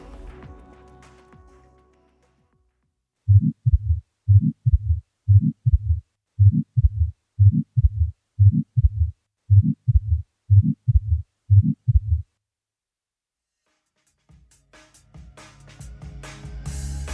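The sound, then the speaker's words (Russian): A ventricular septal defect heart murmur: about a dozen low, whooshing heartbeats in a steady, even rhythm, fairly loud, with no talking over them and quiet gaps before and after. “Он тем громче, чем выше градиент давления и чем меньше по размеру дефект – по мере роста легочной гипертензии, уменьшающий градиент давления между левым и правым желудочками, интенсивность шума убывает.”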